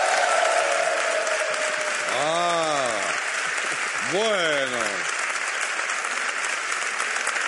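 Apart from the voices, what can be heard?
studio audience applause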